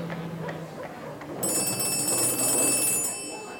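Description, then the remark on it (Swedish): A telephone bell rings in one continuous, bright metallic burst lasting under two seconds, loud, preceded by a moment of low background rumble. “Och så ringde vi till honom.”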